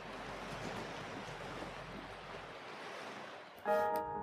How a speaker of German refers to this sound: Es ist genau das zu sehen, was man jetzt hört. Ein Schiff mit einem Baum oben. Ein Baum reist über das Schwarze Meer. Wie ist das möglich?